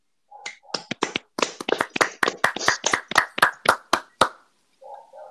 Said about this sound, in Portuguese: É, uma salva de palmas aí, rapaziada, para iniciar o programa naquele ritmo.